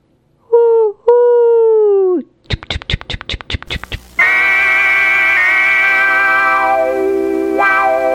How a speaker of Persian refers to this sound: ترن را ببین از پشت پنجره که نشستی گوش کن میزنه سوت بلندی چنین